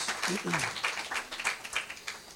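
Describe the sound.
An audience applauds together, a steady wash of many hands clapping at moderate volume, with a voice briefly calling out near the start before the clapping carries on.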